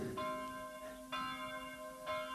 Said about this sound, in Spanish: Oye esas campanas. Ya llega al pueblo la condesa.